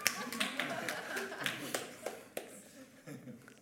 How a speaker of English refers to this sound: Oh, come on. That was worth a better clap than that. Come on, that was good.